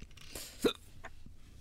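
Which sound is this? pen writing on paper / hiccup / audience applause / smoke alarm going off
hiccup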